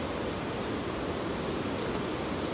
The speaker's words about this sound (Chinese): 真的，我现在还在那栋瀑布走出来的步道上，旁边的溪流很湍急，声音很大。